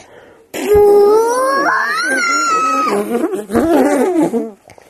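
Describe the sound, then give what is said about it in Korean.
A voice imitates a loud, drawn-out fart, one long buzzing, wavering note that rises in pitch and lasts about four seconds, forceful, with no other talk. “자, 그럼 끼웁니다 방구 소리 내자.”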